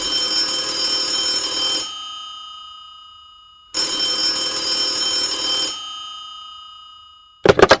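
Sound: telephone ringing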